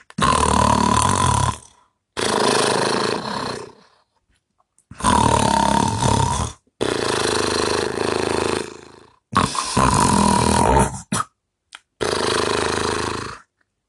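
Loud, rasping snores repeat in six long, heavy breaths separated by short pauses, harsh with a throaty, guttural rumble, likely a voice imitating two giants snoring as they sleep at the foot of a tree in a forest.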